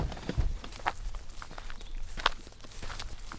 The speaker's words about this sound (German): Ist auch schön, dass der Kies schon mal ein bisschen knirscht.